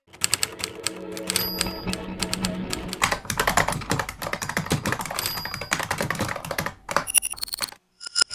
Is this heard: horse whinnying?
no